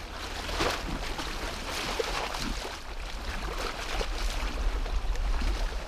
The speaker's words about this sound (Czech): Dneska se Labuť zlobí, Dneska je nějaká rozčilená. Dneska se ženou vlny z velké dálky.